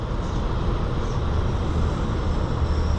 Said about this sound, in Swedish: Riktigt mäktig tågresa.